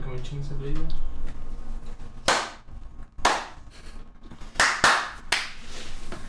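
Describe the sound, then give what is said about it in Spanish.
A few sharp hand claps, about five, in an uneven pattern, loud and crisp, made to check that audio is being recorded, after a brief stretch of speech at the start. “Haz un aplausito o algo, ¿no?”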